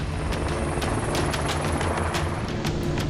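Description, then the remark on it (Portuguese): A helicopter roars steadily throughout, its loud, dense engine noise broken by rapid, rhythmic rotor thumps, as it flies to drop water on a fire in a state forest park. No one speaks. “Em outra ação, o helicóptero lança água para apagar um incêndio em um parque florestal do estado.”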